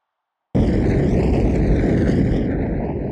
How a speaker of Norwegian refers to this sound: I samme sekundene så visste jeg at det var et snøskred. At vi sklei ned igjennom.